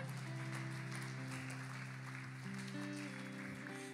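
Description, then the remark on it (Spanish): Steady, continuous applause from a crowd for those who said the prayer, a dense crackling wash of clapping that holds for several seconds over sustained, softly shifting keyboard chords, with no one speaking. “¿Y por qué le damos un aplauso a los que hicieron la oración?”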